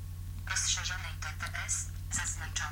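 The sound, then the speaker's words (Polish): A phone ringtone plays softly in the background while a synthesized text-to-speech voice speaks over it, announcing who is calling; the lightly muted ringing stays steady and subdued beneath the talking. “Lekko jest wyciszany dzwonek, przemawia do nas mowa i słyszymy”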